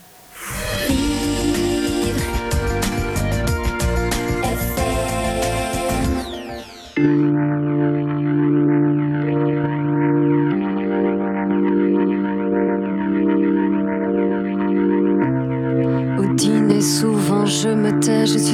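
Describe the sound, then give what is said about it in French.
A song plays loud and close: a dense, busy full-band opening drops after a few seconds into sustained, wavering electronic tones, then a brighter, fuller section returns near the end. “C'est un extrait de votre album. Mais c'est facile à écouter.”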